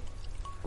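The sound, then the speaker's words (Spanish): A brief pour of liquid into a glass, a soft splashing trickle with a faint rising ring as it fills, lasting under a second with no voices. “Permiso, me un traguito de...”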